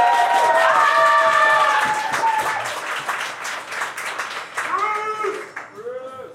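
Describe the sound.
An audience at a live show recording at Yaquis on Cherokee Street in St. Louis claps and cheers, a dense burst of applause that starts strong and gradually thins out, with whoops and shouted voices rising over the clapping toward the end.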